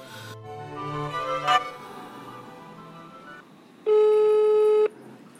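A telephone call tone sounds once as a call is placed, a steady, loud, mid-pitched beep lasting about a second, following a stretch of quieter, murky background noise. No one speaks.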